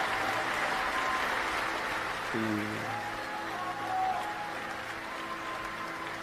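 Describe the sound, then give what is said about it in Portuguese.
A crowd applauds with dense, steady clapping that stays fairly even throughout, while a man's voice briefly speaks over it partway through. “e aquela cena vai sumindo, os aplausos vão sumindo, e você vai voltando para o aqui agora.”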